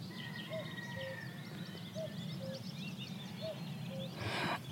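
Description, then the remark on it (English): A cuckoo calls its two-note cuck-oo three times at a steady pace, clear, while other songbirds, including willow warblers and reed buntings, twitter and chirp in the background over a low outdoor rumble. “And you hear willow warblers calling, reed buntings, and of course the cuckoo.”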